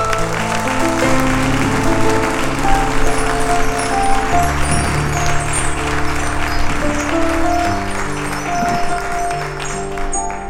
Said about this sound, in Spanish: Dese un aplauso, dese un aplauso.